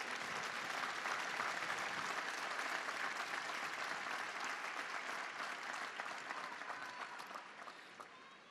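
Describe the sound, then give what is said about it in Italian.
Sustained applause from a large crowd in the square at a general audience, greeting the more than 200 sick people following on a big screen in the Paul VI Hall; a dense steady patter of many hands clapping that holds strong for several seconds before gradually tapering off toward the end. “Con un applauso salutiamo quelli che sono nell'aula.”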